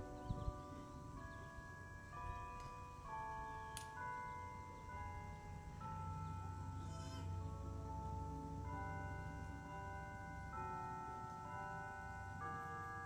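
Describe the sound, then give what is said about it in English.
Church bells ring out Martin Luther's great hymn as a slow tune, one sustained note after another with each tone lingering into the next, steady and fairly loud throughout with no voices. “I don't know, do we let the bell go or can you hear me?”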